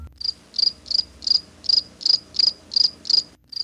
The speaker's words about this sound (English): Do you hear the crickets? yes, that's usually what I hear.